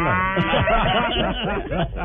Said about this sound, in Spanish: La vaca se llama Clarence. Clarence. Es una belleza vaca. Tengo una vaca lechera. Dice porque es holandesa, ¿no? No es una vaca cualquiera, me da leche condensada.